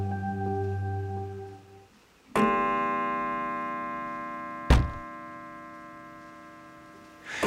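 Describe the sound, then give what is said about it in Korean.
A broken old pendulum clock chimes three slow, evenly spaced strikes in the middle of the night, each ringing out with a long, shimmering decay, with odd noises mixed between the chimes and a low, steady humming tone that gives the chiming an eerie edge. “이 종소리 사이에 땡, 땡, 어? 땡 이런 소음이 섞여 있었던 거죠.”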